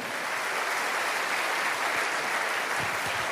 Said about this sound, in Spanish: Alguien tiene que aplaudir más que eso si...